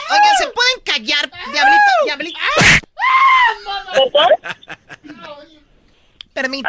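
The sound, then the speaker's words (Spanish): Several voices yell and shriek over one another, with loud rising cries and a sharp burst of noise midway, then the commotion fades into quieter murmuring before resuming. “es que hay mucha grita aquí.”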